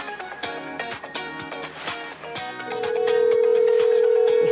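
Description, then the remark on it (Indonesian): Over rhythmic background music, a loud, steady single-pitch phone tone starts partway through and drones on unbroken to the end, like the ringback of an outgoing call. “Beda loh nada sambungnya Iya beda nih iya.”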